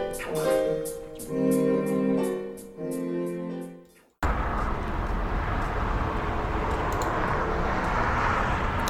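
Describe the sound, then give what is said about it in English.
A short musical passage cuts off abruptly, giving way to a steady, broad roar of street traffic picked up by a microphone stuck out an open window on a day over 70 degrees, a constant wash of passing-vehicle noise with no voices. “As you can hear today, we have extra traffic noise for all you fans of the traffic noise because it's uh, over 70 degrees today.”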